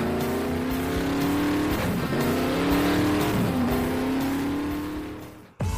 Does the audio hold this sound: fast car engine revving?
yes